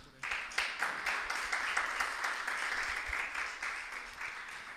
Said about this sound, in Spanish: Un aplauso a Cristo por eso.